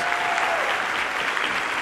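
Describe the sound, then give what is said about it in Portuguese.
Sustained evening applause from an audience at Revolução Church, given for the Lord Jesus, a dense, steady wash of many hands clapping at once with no break, fairly loud throughout. “Se você está feliz, dá um aplauso mais uma vez para o Senhor Jesus nessa noite.”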